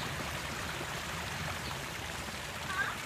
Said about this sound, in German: In einer kleinen Flussbucht traf sie einen ganzen Schwarm von kindernder Menschen. Nackt, ohne Korallen und Schuppen, sprangen sie umher und plätscherten im Wasser.